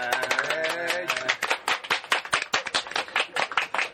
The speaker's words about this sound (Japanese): 今日は拍手がちょっと多いねそうねもういつもとはもう環境が違うんですけどね